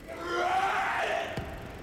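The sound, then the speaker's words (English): A man, Mel Gibson in a played movie clip, lets out a long, sustained scream, loud and strained, holding steady for over a second before fading, with a brief sharp knock near the end. “Otherwise, Mel Gibson won't stop screaming.”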